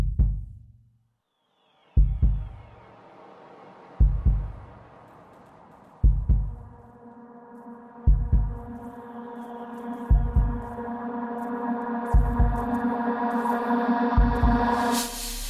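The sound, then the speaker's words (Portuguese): A deep heartbeat sound effect thuds slowly and steadily, about every two seconds, while a swelling musical drone builds up beneath it. No one speaks. “Essa máquina que nos desafia a cada batida do coração.”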